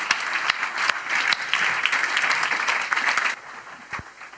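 An audience claps steadily in a dense wash of many hands, welcoming the next speaker, holding a fairly even loudness before thinning out near the end with a few last scattered claps.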